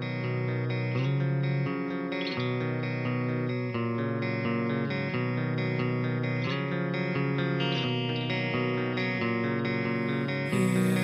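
Clean electric guitar plays a constant, flowing arpeggiated pattern, notes ringing into each other with chorus-like shimmer over steady bass and drums, loud and dense with no vocals.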